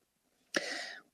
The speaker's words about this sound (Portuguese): Deixa eu, vou ter que dar uma fechadinha aqui no microfone para dar uma tossidinha aqui, tá, gente? Só uns segundinhos aí, tá bom?